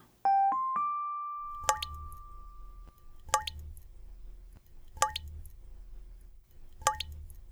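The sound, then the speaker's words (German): A short chime opens, then water drops fall into water four times at a slow, even pace, each a clear plop with a faint low rumble between them. “Ein Tropfen fällt ins Wasser, scheinbar ein ganz simpler Vorgang.”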